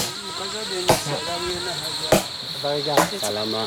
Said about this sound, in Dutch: De groepsleider zit nu met een gigantisch mes in een stuk hout te slaan om ons zitje te verstevigen, geloof ik. Ja, daar lijkt het op.